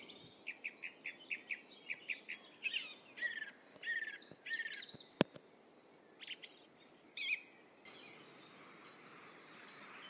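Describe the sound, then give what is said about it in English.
Birdsong fills a woodland: a rapid series of bright, repeated chirps, then overlapping whistles and trills from several birds, with a faint insect-like hiss in the background and no talking. “And it's only when you stop and listen to it, and there's nothing else that you're supposed to be doing but just walking through a woodland and listening to birdsong, that you realise how incredible it is.”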